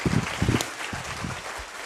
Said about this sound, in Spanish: Sí se merece un aplauso, ¿verdad?